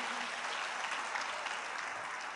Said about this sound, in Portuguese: Tem algum professor aqui, inclusive? Amém? Uma salva de palmas para os nossos professores.